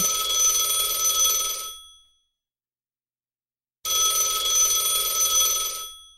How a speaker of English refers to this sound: phone's ringing. I don't pick up, right? I unplugged it. There's. There's another phone. There's something unnerving about a phone ringing in that underground maze.